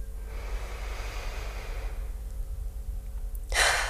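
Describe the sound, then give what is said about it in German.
A group takes a deep breath in: soft, airy breathing in fills the first couple of seconds, then a short pause, followed by a louder, rushing breath near the end; no one speaks. “Also atmen mal alle tief ein.”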